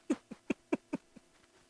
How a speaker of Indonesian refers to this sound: keren keren keren kayak konser ya ada yang tepuk tangan ya pak